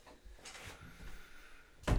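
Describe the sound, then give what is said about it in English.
Soft rustling and wooden creaks as a chair shifts under someone's weight while they sit up, trying not to move a microphone, ending in a louder thump of movement. No one speaks. “I'm trying to sit up in my chair without moving my mic.”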